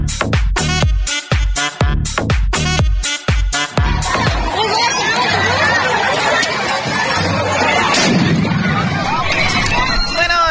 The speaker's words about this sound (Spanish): están escuchando audios de parte de la marcha y bueno, lo que se difunde en los medios, eh, obviamente en México hubo una marcha ayer, en Chile, en España y en otros países sobre eh, pues los derechos de las mujeres, ¿verdad?